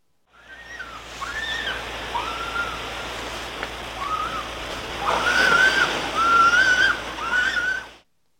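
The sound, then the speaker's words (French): A New Zealand fur seal gives a series of high, wavering, whistle-like cries, rising and falling in pitch, growing louder toward the end over a steady wash of surf. No one speaks. “qui est-ce qui nous parle C'est l'otarie à fourrure de Nouvelle-Zélande.”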